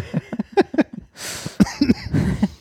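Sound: cough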